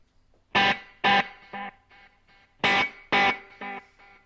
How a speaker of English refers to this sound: Now here's the Echoplex.